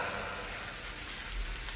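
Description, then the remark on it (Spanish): Rain starts to fall, patters steadily across a surface, a dense hiss of countless small drops with a low rumble underneath, even in loudness throughout, with no voices. “Escuchen, la lluvia ya empieza”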